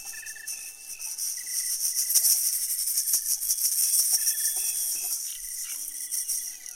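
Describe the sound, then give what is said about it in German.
Two small shaker eggs, plastic or wooden eggs filled with rice grains, shaken one in each hand, rattle in a steady, dense, high-pitched hiss that buzzes like a chorus of chirping insects, continuous, with no talking. “Da hatten die Musiker, die im Raum verteilt sind, hatten alle ein Shaking Egg in der Hand oder eine Maraca. Also so ein kleines Ei aus Plastik oder aus Holz mit Reiskörnern drin.”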